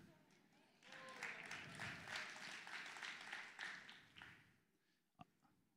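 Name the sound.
audience hand clapping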